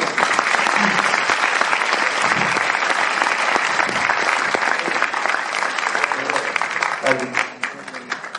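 Sustained applause from a large audience welcoming a speaker, dense and steady clapping for several seconds before it starts to thin out near the end.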